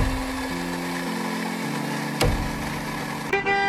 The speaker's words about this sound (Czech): Troubení na ulici.